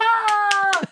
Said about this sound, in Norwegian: En applaus i bakgrunnen.